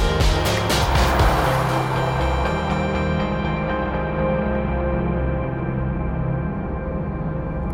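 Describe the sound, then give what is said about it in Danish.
A large white bus cruises along a motorway through Germany towards Poland under a clear, sunny sky: a steady engine drone with heavy road rumble and a constant hum, continuing unbroken for the whole stretch, with no one talking. “Altså, hvis man filmede ind af forruden, så ville man mest bare se to unge mænd, der griner helt vildt meget i en kæmpe hvid bus med retning mod Polen.”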